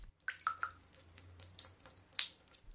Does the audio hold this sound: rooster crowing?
no